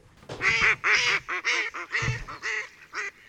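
A series of loud, nasal duck quacks in quick, uneven bursts, about eight calls over a few seconds, with no talking.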